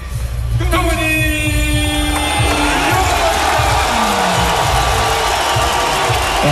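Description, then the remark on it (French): A loud, dense boxing arena crowd roars steadily throughout as boxer Tony Yoka arrives for his fight, with shrill whistling rising above the din and a low, droning tone running beneath the noise. “il se déhanche avant l'arrivée de Yoka sous quelques sifflets”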